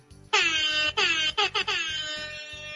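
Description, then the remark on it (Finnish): A loud, brassy air horn sound effect blares to mark a correct answer in a quiz, in a quick series of blasts: a long one followed by several shorter stuttering honks and a final sustained tone, over a faint rhythmic beat. “Öö, oikean vastauksen merkiksi tulee tämmönen ihana Airhorn ääni.”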